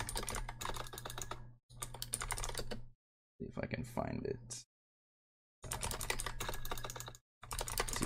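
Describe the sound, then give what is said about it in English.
Rapid, dense clicking of computer keyboard typing in several bursts, fairly loud, with a short spoken phrase in the middle gap, as someone pulls up a web page to link to it. “hear me clipping, al clicking along.”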